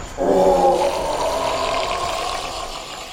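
A monstrous creature, struck in the eyes by a sudden shot of sunlight, howls in pain, a loud, rough, harmonic roar that bursts in abruptly and holds for about three seconds before slowly weakening, with no one speaking.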